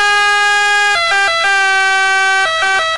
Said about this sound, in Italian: Questo è l'effetto Doppler delle ambulanze, lo capite.